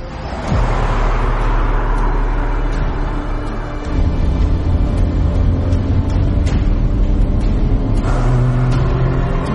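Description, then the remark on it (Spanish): A young woman gets into a vehicle and starts it: the engine turns over and catches after a brief pause, then settles into a steady, loud rumble that rises as the vehicle pulls away and keeps driving along a two-way road, with no voices. “Se monta, arranca el vehículo, baja la ventanilla.”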